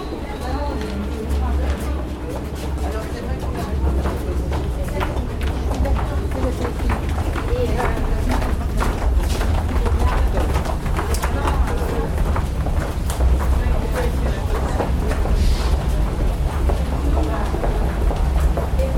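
Paris metro ambience through corridors, stairs, escalators and rubber-tyred trains, with a steady low rumble, brisk overlapping footsteps and a murmuring crowd, continuous and fairly loud throughout, with occasional sharper clicks and clatters.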